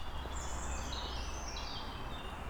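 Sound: european robin song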